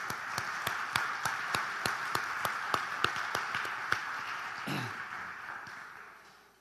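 A church audience applauds at a preacher's call during a sermon, a steady wash of clapping with sharp, evenly spaced claps standing out for about four seconds, then the applause fades away gradually.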